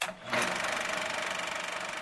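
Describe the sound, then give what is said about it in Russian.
A film projector clattering during a silent-film screening, with a fast, steady mechanical chatter that runs continuously after a brief dip at the start, bright and even in level, with no voices. “Происходящее на экране сопровождалось громким «нет, не поеданием кем-то попкорна, а треском кинопроектора»”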